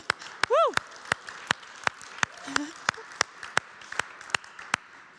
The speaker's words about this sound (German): Lass uns mal denen Applaus geben.